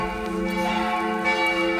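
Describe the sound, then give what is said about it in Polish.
A bell rings with a sustained, resonant metallic tone that hums steadily for a couple of seconds, fairly loud, with no voices over it. “Dzwonimy? Dzwonimy.”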